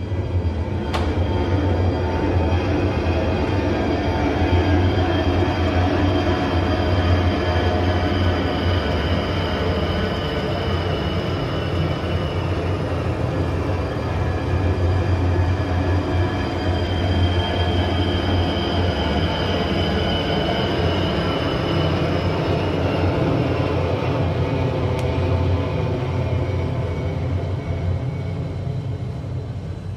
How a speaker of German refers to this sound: Wir haben die ersten Maschinen im Anflug. Da kommen sie.